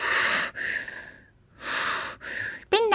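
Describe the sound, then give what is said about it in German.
A voice imitates Darth Vader's heavy, mechanical respirator breathing from Star Wars, two slow hissing inhale-exhale cycles, loud, before a voice begins to speak at the very end. “Und auch dieses Atmen ist seine Statusarbeit.”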